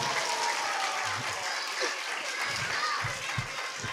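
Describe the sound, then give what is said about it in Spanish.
Steady applause from an audience fills the space, dense clapping with children's high voices shouting and chattering through it, lively, without pause. “¿Qué aplauso es ese?”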